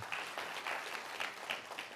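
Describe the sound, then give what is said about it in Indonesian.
An audience claps together for the pastor in a steady burst of applause, dense overlapping hand claps, with no talking over it. “Beri tepuk tangan buat Pak Gembala.”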